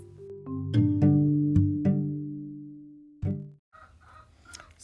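Chickens clucking in a busy, overlapping chorus as they are let out in the morning, with a long drawn-out rooster crow, followed by a few seconds of softer scratchy squawks and clucks. Nobody speaks.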